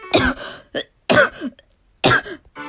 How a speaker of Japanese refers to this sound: すいません。えこの、この時期に咳をするっていうことが本当に許されない行為だなと、特に外に出ている時は思っていて、なんかその、今ラジオ中ではありますけど、こう画面越しの方がすごい不快な気持ちになるんじゃないかなっていう配慮は、あの、できたはずなんですが、すいません。それも抑えきれないほどの勢いでちょっと咳が出てしまいました。